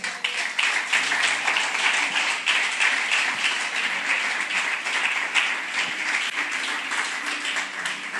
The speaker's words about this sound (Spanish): Dale ese aplauso al rey.